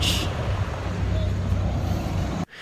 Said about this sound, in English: They got a bus going by in the background.